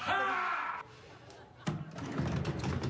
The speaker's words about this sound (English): You sound like a lunatic. You're just screaming. It is unreal. Just sneeze like a normal person.